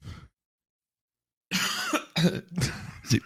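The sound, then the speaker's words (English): A short burst of harsh coughing, three or four hacking coughs in quick succession after a brief pause, with some throaty rasp between them. “I, I had to cough the Sheila out of my lungs there.”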